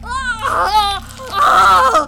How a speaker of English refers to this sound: Several demons hold him down, while several more begin pulling on his jaw, cracking and breaking it open. Father Paul lets out a howling scream,